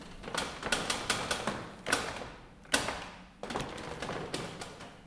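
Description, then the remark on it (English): An old hand printing press being worked, its handle turned to advance the bed for the second pull: a rapid run of dry mechanical clicks and rattling ratchet-like clatter, broken by a couple of heavier knocks, fairly loud with no voices. “And this kind of noise would have been both louder and more or less constant in, the, in a press room when the presses were working if there were more than one, which there usually would have been,”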